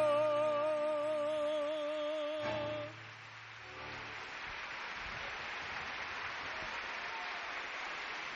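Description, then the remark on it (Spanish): A singer's held note ends a tango performance for a few seconds, then a Mexican audience breaks into sustained applause before the singer has finished, a dense, steady wash of clapping that carries through to the end. “El público mexicano aplaude el tango como se debe aplaudir antes de que termine la interpretación del cantor”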